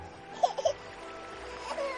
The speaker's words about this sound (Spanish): Extrañado, miró a su alrededor y descubrió un niño abandonado entre los zarzales. El llanto de aquel niño desvalido le recordó a su hija